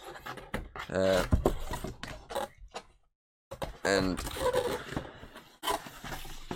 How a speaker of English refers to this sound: I got a disc plate for Christmas uh, of one of these games. I will show you on camera if I can get it out of the fucking box. I've left it in the box, I haven't put it up on the wall just yet.